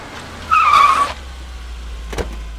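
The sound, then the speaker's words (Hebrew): A taxi, ordered to take a woman whose water has broken to the hospital, pulls up with a short, high squeal of brakes or tires over a low engine rumble, then a single sharp knock a moment later. No one speaks. “הזמנתי מונית, לקחתי תיק ומגבת לשבת עליה, לבשתי מסכת בד ופתחתי דלת המונית עם זוג כפפות חד פעמיות.”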